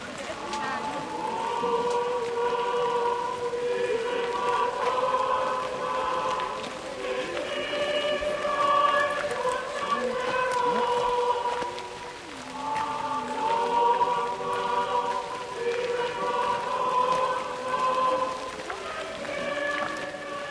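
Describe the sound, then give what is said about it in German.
Steady rain patters continuously on a pilgrimage procession of a few thousand people while a crowd of voices chants or sings together in sustained, droning tones. “Und dann kann sie nicht einmal den Regen zurückhalten.”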